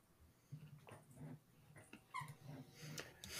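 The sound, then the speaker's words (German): A few short, high squeaks from a dog's squeaky toy, irregular and fairly quiet, with soft snuffling and whimper-like dog sounds in between. No one speaks. “Sorry, der Hund. Wie er quietschte genau.”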